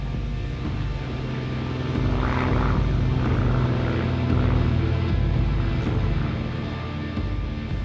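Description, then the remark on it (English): A small propeller plane, flying from Lisbon to Biafra in December 1967, drones steadily overhead, its engine a continuous low rumble with harmonic hum, swelling slightly in the middle before holding level. No voices are heard. “So, in December of 1967, Raymond Kennedy hopped into a small plane in Lisbon, strapped himself into a seat on top of an ammunition box, and flew to Biafra.”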